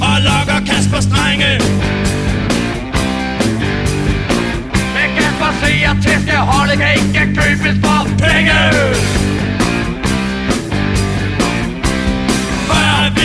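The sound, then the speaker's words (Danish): A Danish comedy group's novelty pop single from a 1997 album plays loud and continuous, with sung vocals riding over a steady beat and full band backing throughout. “Og her deres super single fra netop samme album,”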